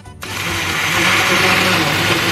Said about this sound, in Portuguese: Você vai bater no liquidificador o leite de coco, o coco natural e vai acrescentando o leite condensado.